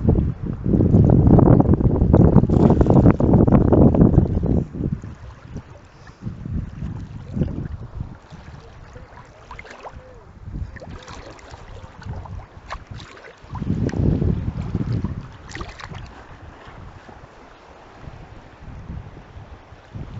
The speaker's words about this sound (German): ihr hört es sicherlich, das Rauschen. Und der Wind vermutlich.